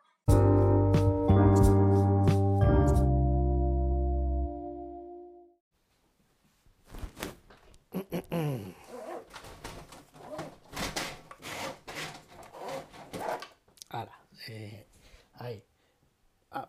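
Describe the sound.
A metal roller shutter rattles down for about five seconds, loud and ringing with a clattering start, then falls silent before people start talking.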